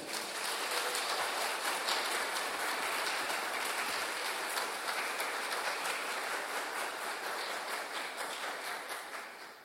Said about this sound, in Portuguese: Eu quero aplauso para o Senhor.